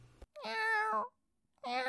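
A kitten meows twice in a row, each call a loud, drawn-out, high-pitched mew with a short silent gap between them, and no talking over the cries.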